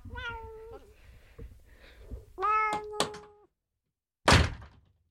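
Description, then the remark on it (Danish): A cat meows, one drawn-out cry followed by a couple of sharper, overlapping meows; after a short silence a single loud thump lands. “tage katten ud nu.”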